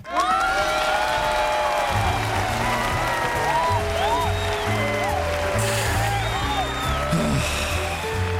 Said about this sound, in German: Na, bitte, dann jubel halt.